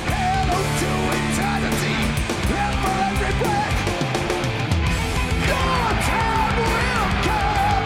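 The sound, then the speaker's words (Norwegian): A concert audience cheers and yells loudly over live music, a dense, continuous roar of many voices mixed with singing and instruments for the whole stretch. “Hør på publikum, da.”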